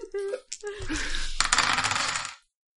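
A large handful of dice clatters and rattles across a hard surface, a dense burst of clicking impacts lasting a couple of seconds before abruptly stopping, fairly loud.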